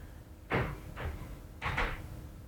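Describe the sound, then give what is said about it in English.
Heavy thumping footsteps of upstairs neighbors come through the ceiling as a handful of dull, irregular thuds spread over a couple of seconds, with no talking. “they over there crip walking upstairs apparently.”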